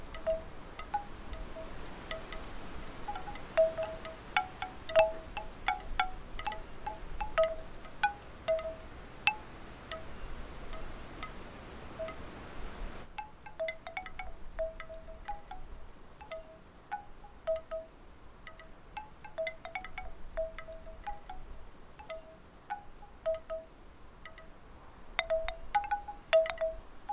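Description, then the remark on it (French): Wind rustles steadily through a sophora tree, an easterly wind, while a bamboo wind chime mobile on a terrace clacks in irregular, hollow wooden knocks, some sharp, others softer, continuing throughout with no voices. “On entend aussi le vent dans le sophora qui est en face de chez moi.”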